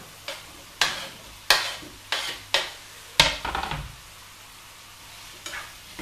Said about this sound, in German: So, Butter und Öl ist noch genug da. Oh, und das riecht schon wieder so lecker. So, und jetzt hauen wir uns unsere äh, Champignonstückchen mit in die Pfanne.